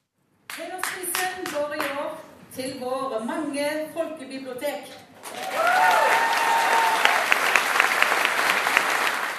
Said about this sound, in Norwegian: Det var full jubel i salen da kulturminister Toril Vidvei kunne røpe at Brageprisens hederspris i år gikk til Norges folkebibliotek.